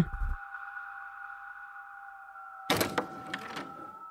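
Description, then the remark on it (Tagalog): An apartment door is unlocked and opened: a quick rattle, a few sharp latch clicks, then a brief creak, all over a steady high electronic hum that runs throughout. “Love naman, bakit naman nagmamadali kang buksan ko tong pintuan?”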